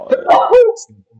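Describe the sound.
A single loud sneeze: a short voiced intake followed by a sharp, breathy burst, lasting under a second, with quiet room noise afterward.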